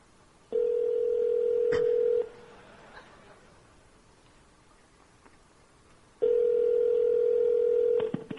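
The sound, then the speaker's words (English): A phone call to a Starbucks, placed during a keynote demo, rings in two long, steady electronic tones separated by a quiet pause, with a brief click of dialing near the start. No one speaks. “And let's give him a call.”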